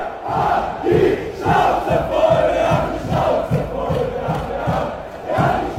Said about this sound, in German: Das Video ist echt, das ist tatsächlich an einer Bauerndemonstration aufgenommen worden. Der Ton aber stammt von einem Fußballmatch.